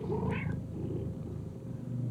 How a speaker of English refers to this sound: The big orange tabby saunters like only a cat can towards this menacing, dark, tentacle mass just at the edge of your sight and walks up and begins purring and rubbing the edge of this tentacle wall.